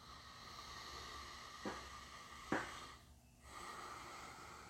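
Two short breaths drawn in through the nose, about a second apart, slightly muffled, inhaled from cupped hands rubbed with a drop or two of essential oil, over a steady low background hiss with no talking.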